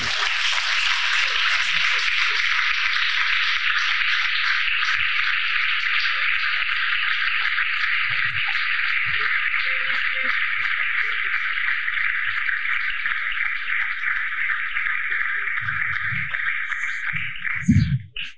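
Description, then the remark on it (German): An audience, risen from their seats, applauds the Base 5 crew loudly and steadily, a dense, unbroken wash of clapping that holds at full strength for over fifteen seconds before a few louder bursts near the end. “Also erhebt euch von euren Sitzen und gebt der Base 5 Crew einen richtig fetten Applaus.”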